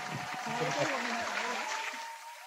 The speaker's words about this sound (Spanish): Ahí sí, ¿no? Ahí sí. Aplaude.